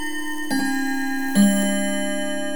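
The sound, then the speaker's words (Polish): An alarm clock sound introducing the segment 'Misyjny budzik' (Missionary Alarm Clock) of the Pontifical Mission Societies: two sharp metallic strikes about a second apart over a steady, sustained ringing tone, moderately loud, with no voices. “Misyjny budzik.”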